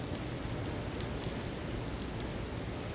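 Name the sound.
heavy rain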